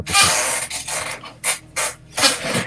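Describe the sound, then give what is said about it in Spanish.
Several sharp mechanical clicks and whirring bursts from a camera shutter firing with a flash mounted on the camera's hot shoe, shooting to capture the space, spaced irregularly over a couple of seconds, loud with no one speaking. “Subo un momentito y monto el flash en la zapata de la cámara y disparo para captar el espacio, aunque se ha reducido ya.”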